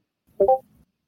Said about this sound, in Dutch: Ja, dat was het geluidje van Discord.